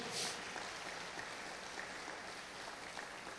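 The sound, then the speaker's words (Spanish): An audience applauds for the Lord, the dense patter of many hands holding at an even, fairly soft level for a few seconds, with no one speaking over it. “Déselo al Señor ese aplauso, por favor.”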